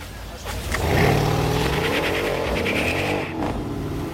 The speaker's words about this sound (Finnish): Katsotaanpas mikä tää on. Taitaa olla C, C63 AMG, joo. Eikö E63 oli tämä? Aivan ihana.